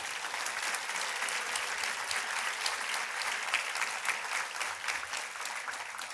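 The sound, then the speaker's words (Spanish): Sustained applause from a church audience honoring the traffic team, a dense wash of many hands clapping at a steady level for several seconds, with no voices standing out. “Sí, démosle un aplauso a, esas personas.”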